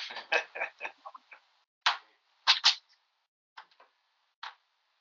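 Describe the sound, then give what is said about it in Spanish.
A door being closed: a flurry of sharp clacks and knocks from the latch and frame, followed by a few scattered clicks, moderately loud, with no talking. “voy, a cerrar la puerta.”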